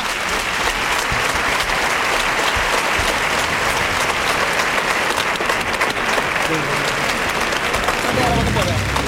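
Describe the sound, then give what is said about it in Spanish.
A bullring crowd gives a sustained ovation for the rejoneadora (female mounted bullfighter) after she kills the bull with the verduguillo on the second attempt, dense applause and cheering holding steady and loud for the whole stretch, with a voice beginning to speak over it near the end. “Acertó Lega Vicente Y ahora la ovación del público la rejoneadora.”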